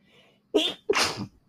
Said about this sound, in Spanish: Uy, tengo un estornudo.